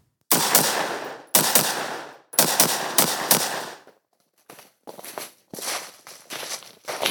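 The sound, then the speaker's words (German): Gunfire in a forest in Pennsylvania, men shooting: a series of sharp, loud shots, each cracking out and trailing into a rolling echo, first four or five heavy ones, then a quicker run of lighter shots after a short pause. “Ich bin nämlich letztens zwei Tage lang durch den Wald in Pennsylvania gekrochen und habe Männern beim Schießen zugeschaut.”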